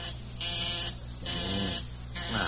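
A harsh electric buzzer sounds four long, repeated bursts with short gaps between them, fairly loud over a steady low hum, with no one talking.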